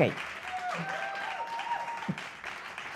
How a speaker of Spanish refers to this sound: No, un aplauso para que venda bien. ¿Eh? Aplausos al de los tamales.